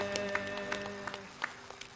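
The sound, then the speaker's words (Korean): An audience gives a round of applause of glory to the Lord, clapping in scattered, irregular bursts over steady sustained keyboard or organ chords. The applause is moderate, with sharp claps popping out now and then, and no one speaks. “주님 앞에 다시 영광의 박수 한번 올리시지 않으시겠습니까?”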